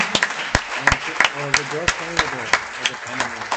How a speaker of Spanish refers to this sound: Aleluya, denle un aplauso al Señor.